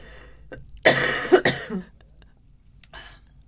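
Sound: coughing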